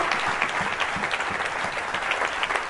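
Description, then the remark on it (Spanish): Steady applause from an audience, a dense, continuous patter of many hands clapping at an even level throughout, with no one speaking over it. “Dale un aplauso.”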